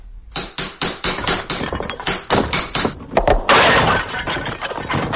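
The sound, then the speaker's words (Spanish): A hammer repeatedly smashing a sculpture to pieces, leaving only its butterfly intact: a rapid series of heavy, sharp blows with cracking and shattering, ending in a longer burst of breaking debris. No one speaks. “E hizo añicos la monstruosa obra, dejando solo intacta a la mariposa.”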